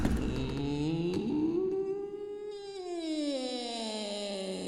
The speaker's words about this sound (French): Dolores se gare et va sonner à la porte du château, qui s'ouvre immédiatement en grinçant.